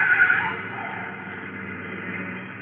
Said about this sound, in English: And that car was trying to run us down. The same thing that happened to Logan. Yeah, and almost in the same place. A baby blue convertible, a big one.